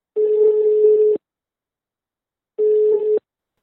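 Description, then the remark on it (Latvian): Two long, steady beeps of an outgoing phone call's ringing tone, each about a second long with a pause between, at a single mid pitch and fairly loud, with no voices. “Kā pārliecino zvanot pa telefonu,”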